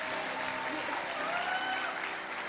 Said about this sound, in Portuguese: Um aplauso para o Senhor. Uma salva de palmas para o Senhor.